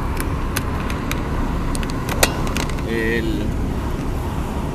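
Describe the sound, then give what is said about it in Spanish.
A steady, loud rumble of a car being driven along a highway, heard from inside, with a few sharp clicks and a brief faint tone partway through. “Eh, ahorita voy aquí eh, conduciendo”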